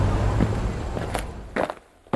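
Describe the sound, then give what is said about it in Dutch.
Footsteps walk along a busy street in the Netherlands, several distinct steps landing in an uneven rhythm over a steady wash of low city rumble and background bustle. “Terwijl we door de drukke straten lopen, komen we een gezellige kleine bakkerij tegen die vol zit met allerlei heerlijke lekkernijen.”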